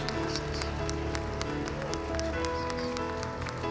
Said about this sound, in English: Come on and give my hand clap of praise in this house.